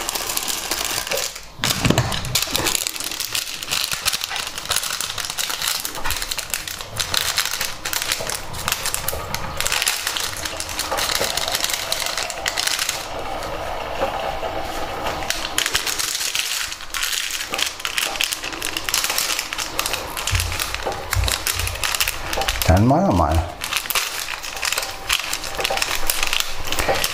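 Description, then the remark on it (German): Steady crunching and chewing as a cat eats dry food, recorded on an Olympus DM720, a dense run of small crisp cracks and clicks going on for the whole stretch with no one talking. “Und das war der Kater. Genau gefressen.”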